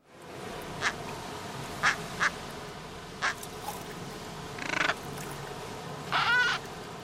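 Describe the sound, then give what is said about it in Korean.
Penguin calls sound out over a steady background hiss: several short honks spaced apart, then a longer, louder braying burst near the end, and no one speaks. “바로 느낌 오시죠? 펭귄입니다.”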